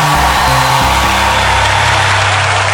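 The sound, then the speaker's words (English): A large audience claps and cheers loudly and continuously after a call for all the successful people to make some noise. A dense wash of applause and shouts, with low sustained music chords playing underneath. “All the successful people make some noise right now.”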